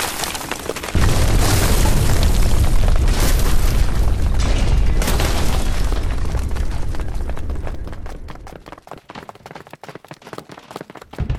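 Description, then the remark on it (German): The ceiling of the Toy Room collapses with a sudden heavy rumble that roars for several seconds, then fades into scattered crackles and small falling-debris clicks. No voices. “Die Decke stürzt ein! Der Toy Room bricht zusammen!”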